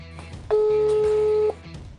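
A steady electronic telephone ringback tone of an outgoing phone call sounds for about one second, fairly loud, over faint low background murmur.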